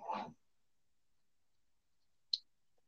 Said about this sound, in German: Falls ihr so ein Klicken hört, das ist, weil ich. Oh, mein, ich ich wollte gerade sagen, weil ich mein iPad vergewaltige. Nein, ich zeichne und ich habe so einen Stift.